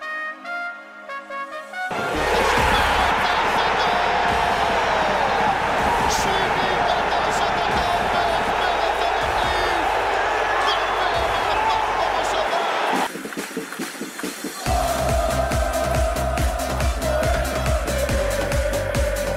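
A loud, dense song, played as an opening theme and always played at the end of Hapoel's games, with a crowd cheering and chanting over it, shifting sections midway, with a brief pause before the music resumes strongly near the end.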